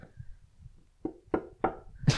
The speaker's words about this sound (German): So, ich habe dreimal auf Holz geklopft, äh, dass wir morgen kein Corona haben oder sonstiges.